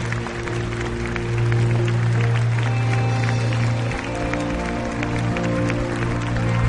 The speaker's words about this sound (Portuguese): Você pode aplaudir o rei que é fiel, mas aplauda do coração, dizendo: Eu creio que ele é fiel.